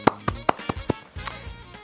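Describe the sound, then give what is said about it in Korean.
Someone claps their hands about five times in a quick, even rhythm, then adds one more clap after a short pause. The claps are sharp and crisp over a faint low hum. “박수 한번 쳐드립니다.”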